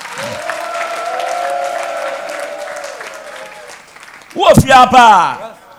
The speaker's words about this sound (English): And give Jesus a clap offering and a shout.